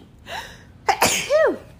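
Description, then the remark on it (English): A single sharp sneeze, fairly loud, preceded by a brief sharp intake of breath and ending in a voiced, trailing tail. No talking is heard. “if I just sneeze like that, I'd stop it, edit it out”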